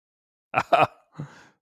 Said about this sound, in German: Na, ich muss mal husten.